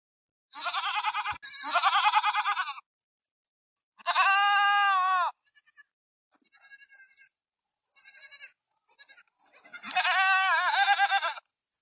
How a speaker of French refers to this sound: C'est la chèvre.